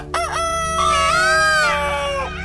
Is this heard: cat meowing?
no